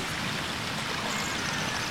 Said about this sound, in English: So we get to Zora's River with 240. And you can get downriver pretty fast.